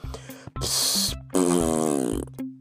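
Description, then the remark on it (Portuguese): Two loud, sputtering fart noises from a baby into a freshly put-on clean diaper, just as the last button of the babygrow is fastened: a short hissy burst followed by a longer buzzing, rippling one, with no talking. “ora depois de tudo isso, pomos uma fraldinha super limpinha naqueles rabinhos cheirosos e fofinhos de bebê, só para mal apertamos o último botão do Baby Grow ouvir assim um.”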